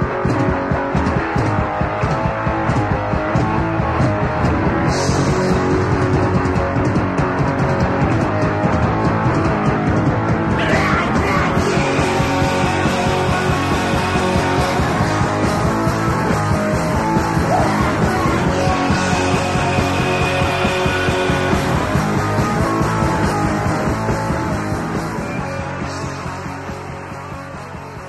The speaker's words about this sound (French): Il y a un breakdown, il y, a un, truc au milieu, et puis le style change. on passe d'un truc un peu hardcore, un truc hard rock. C'est assez, assez, intéressant